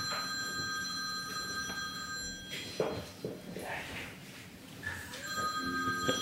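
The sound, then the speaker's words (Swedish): A telephone rings on the floor below in two sustained bursts, one at the start and another near the end, with a few soft knocks and shuffling sounds in the quiet gap between. “Någon ringer.”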